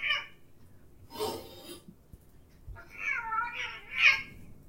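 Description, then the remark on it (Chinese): Two cats fighting: a short yowl, then a harsh, hissing burst, followed by drawn-out, wavering meows that rise and fall in pitch and grow louder toward the end, with no talking. “两只猫打起来了，等我一下，我把它们赶出去。”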